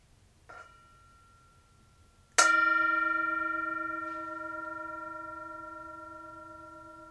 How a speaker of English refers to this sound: In between each of the sections, uh, we will also invite the bell to sound, the mindfulness bell from Tibet. And we invite you listening out there to also enjoy the sound of the bell.